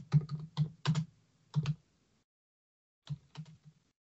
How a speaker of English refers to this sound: And you get typing. I apologize.